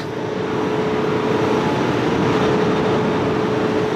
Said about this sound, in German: Ah, da hören wir jetzt schon im Hintergrund Turbinen, oder? Ja, genau. Weil es wird ja nicht nur die Region hier mit Trinkwasser versorgt, sondern auch noch ganz nebenbei und auch noch ökologisch mit Strom.